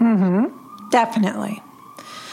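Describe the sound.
A loud emergency siren in a New York City street wails with a rising sweep for about half a second, then cuts off as people talk briefly over faint street background.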